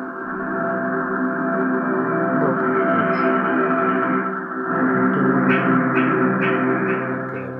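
A steady, humming tone drones on continuously, thick with layered overtones and a slightly processed shimmer, while a few soft chime-like pings ring out in the second half. No one speaks.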